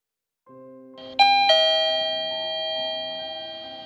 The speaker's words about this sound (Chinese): 小维听到电梯门打开